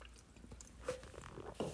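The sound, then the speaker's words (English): Quiet mouth sounds of a speaker sipping water, with two soft slurping sips and faint swallowing against a low background hush; no one speaks. “Excuse me. I some water. I'm a little parched now.”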